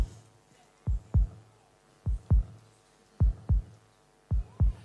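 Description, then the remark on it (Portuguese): A slow, steady heartbeat thumps four times in clear lub-dub pairs, deep, over a faint low hum with no voices. “Porque quem anda perto demais o suficiente para ouvir o coração do Verbo não precisa de nada externo para justificar sua fé.”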